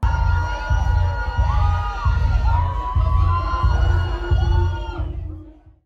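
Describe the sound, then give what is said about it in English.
A loud concert crowd screams and cheers in anticipation at the start of a live show as the opening guitar riff of a song, with bending, sustained notes, kicks in over steady, pulsing low beats, the whole roar fading out at the end. “Among the screams, you could also hear the initial guitar riffs kicking off the song.”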